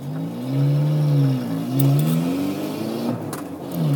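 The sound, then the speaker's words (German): A 75 PS car engine revs up and down repeatedly, its pitch rising and falling in smooth sweeps, loud with no talking. “Deswegen habt ihr jetzt hier knackigen, kernigen Sound Jetzt hört sich das Auto an wie ein großer mit sage und schreibe 75 PS.”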